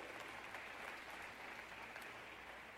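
An audience claps in a steady, dense round of applause for a speaker welcomed to the stage, a continuous wash of overlapping hand claps at an even level that holds for the whole stretch with no voices on top.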